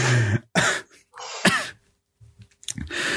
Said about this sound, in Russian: Господи, господи, какой неловкий длинный кашель. Бывает.